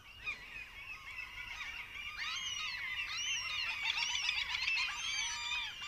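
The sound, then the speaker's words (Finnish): Overlapping common gull calls fill the scene, a steady chorus of harsh, wailing cries rising and falling over several seconds, continuous, with no talking. “Tässä on taustalla kalalogin ääntä.”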